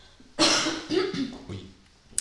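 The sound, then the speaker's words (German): A fairly loud cough bursts out in two or three harsh, raspy pulses, trailing off into a throaty rattle with a brief click at the end. “Ja, wir müssen heute recht oft husten, gell?”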